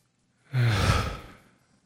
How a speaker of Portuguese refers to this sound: Vamos respirar juntos aí, inspira fundo. Mais uma vez. E uma terceira.